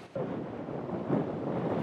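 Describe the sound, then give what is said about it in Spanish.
Strong coastal wind gusts of more than 35 miles per hour on the central and northern California coast roar in a steady, low rumbling rush with buffeting, swelling louder partway through and holding there. No voices are heard. “En estos momentos ya ha comenzado a aumentar la fuerza de las olas, pero lo que es evidente es el viento, con ráfagas de más de 35 millas por hora.”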